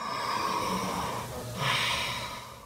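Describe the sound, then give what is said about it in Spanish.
A slow, even inhale followed by a steady exhale, breathy, with no talking during the breath. “Ahora, cuando inhalamos y exhalamos de manera pareja, cuando haces...”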